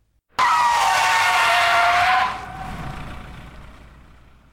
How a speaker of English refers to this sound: As I'm about to doze off again, the bus comes to an abrupt stop.